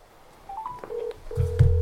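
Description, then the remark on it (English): A few short phone keypad tones beep in quick succession as a call is dialed on speakerphone, followed by a longer steady tone and a low hum, sounding slightly tinny as if played through a phone speaker. “Put it on speaker.”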